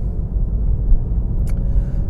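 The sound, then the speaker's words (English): Steady low rumble of car traffic on a busy street in the big city after a Costco run, engines droning without pause, with a brief higher hiss or squeal cutting through near the end. “Oh dear God, this is a busy street.”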